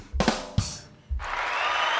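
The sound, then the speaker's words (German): Two short noisy bursts, then a canned crowd cheer kicks in and holds at a steady, fairly loud level until the end, like a soundboard effect played back. “Genau, hier haben wir noch den Jubel.”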